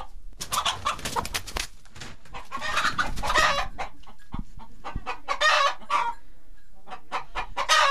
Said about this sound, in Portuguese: juntou as galinhas, apanhou-as e meteu-as em gaiolas.